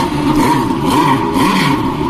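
A sports car engine revs loudly at the Porsche Museum in Stuttgart, its growling pitch climbing and dipping over a couple of seconds with a rough, throaty clatter and no voices.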